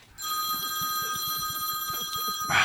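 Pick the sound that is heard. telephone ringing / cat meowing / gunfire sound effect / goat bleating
telephone ringing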